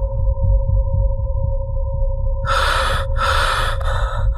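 Heavy, frightened panting breaths of a special forces soldier trembling all over with fear in a cold, dark room: two loud, ragged gasps, arriving after a couple of seconds of low droning rumble and a steady eerie tone.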